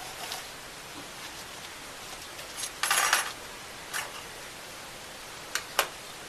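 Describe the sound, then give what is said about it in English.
Keys to a department unit jingle and clink in brief metallic bursts, with one longer shake in the middle and a few sharp taps after it, against a soft hiss with no voices. “the key. Is this to your department unit?”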